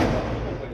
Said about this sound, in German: Und immer wieder auch Explosionen ganz in der Nähe.